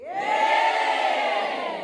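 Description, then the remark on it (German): A large crowd roars and cheers together in one loud, sustained wall of voices, like a football stadium, holding steady for about two seconds with no single speaker standing out, at the Music College Regensburg during the region's first A cappella Camp, in fine weather. “Ich bin nicht etwa im Fußballstadion gelandet, sondern befinde mich im Music College Regensburg der Herberge für das erste A cappella Camp der Region.”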